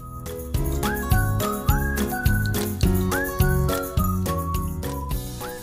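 A cheerful whistled jingle over bouncy backing music, with a bright tune sliding up to sustained notes in a steady, repeating rhythm, loud and clear with no talking.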